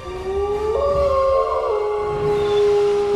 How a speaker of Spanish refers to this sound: Un día los pies en la arena, un aullido lejano, el aullido de una loba oculta en algún monte, le celó la sangre en las venas.